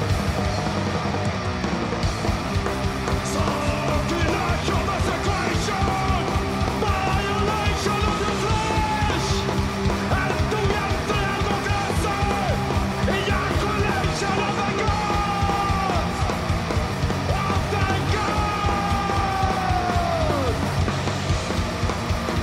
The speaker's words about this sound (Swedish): fan, ropsång var det länge sedan man hörde.